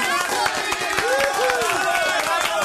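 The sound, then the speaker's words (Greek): Quick, steady hand claps ring out for a few seconds on a live radio show after someone solves a crossword, with excited voices and whoops rising over the clapping. “Ήτανε πολύ καλό, παρακαλώ να χειροκροτηθεί!”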